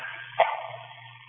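A single short, sharp sneeze bursts out against a steady low hum, then fades into quiet background noise.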